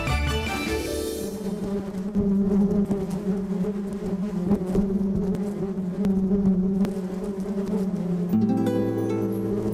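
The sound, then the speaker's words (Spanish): A steady buzzing of bees fills the whole recording, a dense droning hum that wavers slightly in pitch without pause. No one speaks. “mayo ha sido declarado por las Naciones Unidas como el Día Mundial de las Abejas.”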